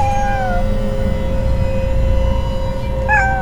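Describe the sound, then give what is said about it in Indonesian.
A cat meows twice, a short drawn-out cry near the start and another near the end, over a steady droning hum and low background rumble. “Kucing itu melihat ke arahku.”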